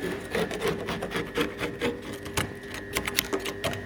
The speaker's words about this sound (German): Dann machen wir sozusagen die Ränder von den Plastikrohren noch sauber, kurz, mit dem Cuttermesser, dass wir nachher die Späne nicht im Kern haben, wenn wir den aufmachen.